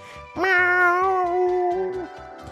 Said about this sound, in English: right now … apparently is auditioning cats